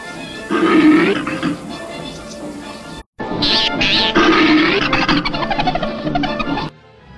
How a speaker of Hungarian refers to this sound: Aztán viszont ez a bizonyos Dice is kapott egy éles hangú nevetést, ezt is hallgassátok meg.